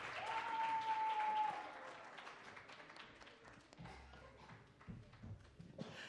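An audience bursts into dense, steady applause that is loudest in the opening seconds and then thins out. A short whistle rises above the crowd early on, and the clapping fades to scattered claps.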